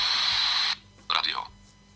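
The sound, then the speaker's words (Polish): A loud, steady hiss of static from an FM radio with no antenna, tuned to 91.3 MHz, fills the first part, then cuts off abruptly; after a brief pause, a short burst of voice-like sound follows. “No i mamy radio FM, które tutaj. No, które potrzebuje anteny. Mogę włączyć, ale będzie szumiało.”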